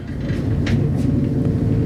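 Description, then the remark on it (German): Steady low rumble inside a moving train on a long journey across Germany to Bern, a continuous droning mechanical hum with faint higher clicks and hisses drifting over it. No one speaks. “Und so bleibt mir eigentlich auch nur die Zeit jetzt im Zug”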